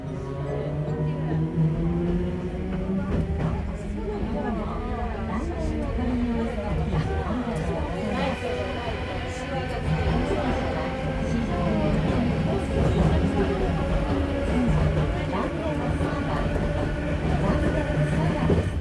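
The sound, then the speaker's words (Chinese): Steady rumble and rattling of a Randen tram in motion in Kyoto, Japan, the line running from Shijō-Ōmiya station in the city to Arashiyama and Sagano, with a recorded onboard announcement voice speaking over the continuous hum throughout. “嗯，其实刚刚有广播有说到，对，没错，是岚电啊，也就是去到岚山嵯峨野的这个电车哦，出发的地方是从市区的四条大宫站哦，一直坐到岚山。”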